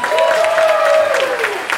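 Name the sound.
audience applause and cheering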